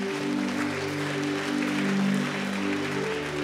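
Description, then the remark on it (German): A church audience gives a mighty round of applause after a prayer, a steady, dense wash of clapping that lasts the whole stretch, while sustained low keyboard chords hold underneath without any talking. “Lass uns hier mal einen mächtigen Applaus geben.”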